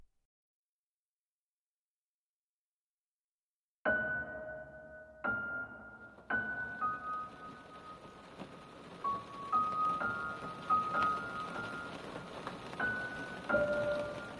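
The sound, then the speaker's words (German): After a few seconds of silence, steady rain begins falling on a prison building under grey clouds, starting in bursts and settling into a constant patter, with faint tonal hums beneath it. “Langsam schlug der Regen auf das Gebäude nieder und graue Wolken hüllten das Gefängnis in ein dunkles Anthrazit.”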